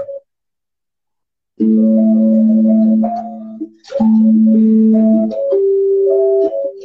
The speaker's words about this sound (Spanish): Ahí te muestro. Esta es con el teclado. Esta canción es con el teclado.